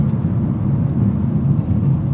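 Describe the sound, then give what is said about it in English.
Steady low rumble of a car interior while driving to work, a constant engine and road drone filling the space at a moderate, even level with no talking. “I'm sitting in the car driving to work.”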